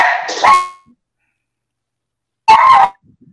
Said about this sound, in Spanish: Sí, em, empezó a ladrar el perrito. Eso es lo que pasó.